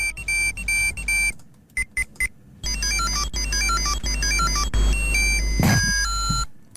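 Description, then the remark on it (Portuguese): Shrill electronic beeping from a 1990s Tamagotchi virtual pet toy, chirping in quick melodic bursts and repeated tone patterns with brief pauses, loud with no voices. “Vamos ouvi-la. Este era o som da melhor ideia da década.”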